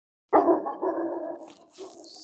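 A dog lets out a loud, drawn-out bark followed quickly by another rougher one, trailing off into a brief whimpering tail with no talking.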